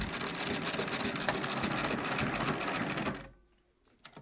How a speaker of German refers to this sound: sitzt mittlerweile an ihrer Nähmaschine.